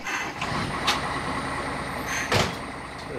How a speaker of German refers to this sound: Wir gehen hinter auf den Betriebshof, wo einige Busse parken. Der Geschäftsführer steigt in einen etwa 17 Meter langen Bus und lässt den Motor an.